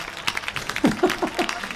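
A short burst of audience applause for Eduardo Casanova, many hands clapping in quick, irregular crackles, with a few voices calling out over it.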